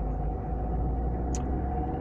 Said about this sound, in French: Donc ça risque de durer un peu parce que ben, en fait je suis dans les bouchons, hein. j'ai fait, euh, j'ai fait 200 mètres.